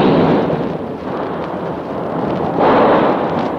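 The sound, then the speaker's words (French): A dense, continuous roar of gunfire echoing inside a cathedral during a shooting, the shots blurring into a loud rumbling wash that swells louder near the end, with no voices. “Il se tient droit sous la mitraille, il est vraiment magnifique.”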